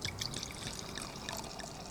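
Wine pours steadily into a glass, a continuous bright gurgling trickle lasting a couple of seconds at moderate, even loudness, with no talking.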